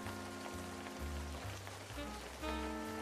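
Steady rain patters in a soft, continuous wash on a cold, wet autumn evening in the streets of Manhattan, New York City, in 1961, falling just hard enough to open an umbrella, beneath a quiet musical backdrop of sustained tones and a slow, stepping bass line. No one speaks.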